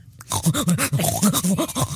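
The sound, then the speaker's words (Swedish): A person imitates a man's pig-like grunting with a rapid, rhythmic run of about eight or nine loud snorting grunts, each one short and nasal, with no speech. “Ja, men jag, hade, jag hade en som så här, stånkade och lät som en gris när han kom.”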